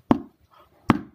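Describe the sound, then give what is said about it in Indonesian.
Two dull knuckle raps on a person's head, made with the backs of the finger bones, hollow and woody, spaced nearly a second apart with quiet between them and no talking. “Dan semua ditempeleng, bukan ditempeleng apa ya, bukan ditempeleng pipinya tapi kepalanya begitu tapi pakai tulang-tulang jari.”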